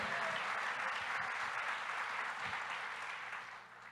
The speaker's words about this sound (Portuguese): Dá uma salva de palmas para esses líderes preciosos que estão fazendo o melhor na casa de Deus. Aplauda bem forte os líderes de família que estão dando o melhor também.